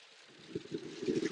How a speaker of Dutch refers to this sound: Het gaat inmiddels heel hard regenen, dus dat ga je wel horen in de podcast, denk ik. Maar als het goed is, kun je mij nog verstaan.